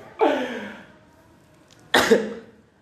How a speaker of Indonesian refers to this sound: Aduh sorry guys, batuk.